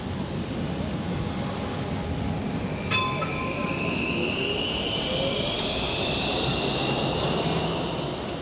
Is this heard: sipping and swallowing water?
no